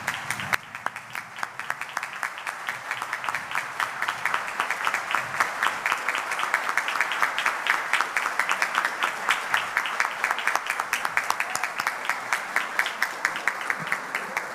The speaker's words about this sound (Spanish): Quiero que todos los delegados se pongan de pie y le den un fuerte aplauso al director general de aduanas, Eduardo San Lobatón.